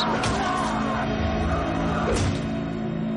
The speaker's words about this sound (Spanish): En el pasado, en un cuartito de su casa, alguien golpea a Ronnie. La sangre mancha las paredes.